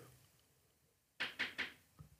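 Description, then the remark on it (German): Three quick, firm knocks on a door in an even rhythm, followed by a fainter thump, with no one speaking. “Eine Sekunde, es klopft jemand.”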